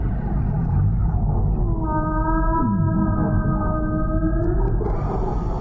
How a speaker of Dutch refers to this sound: Ja, walvissengeluid op dat soort cd's wordt hoorbaar gemaakt voor de mens door dat gewoon tien keer te versnellen.